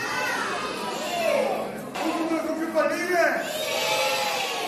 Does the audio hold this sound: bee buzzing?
no